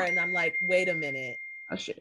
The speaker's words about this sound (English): I, I, oh no, that was my phone.